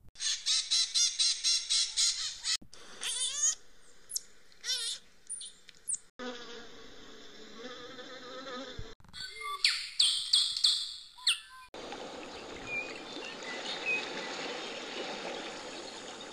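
Harsh, rapid screeching of maritaca parakeets in repeated bursts with squealing monkeys, followed by a changing mix of chirping, trilling songbirds and a steady buzzing drone of bees, with no talking.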